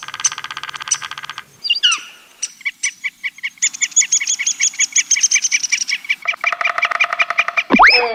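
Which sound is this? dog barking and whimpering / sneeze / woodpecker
woodpecker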